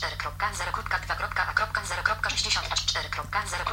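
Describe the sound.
A rapid synthetic screen reader voice in a Mobile Accessibility demo on a phone reads out the phone status and notifications in a steady, clipped stream, sounding thin and slightly tinny over a faint steady hum.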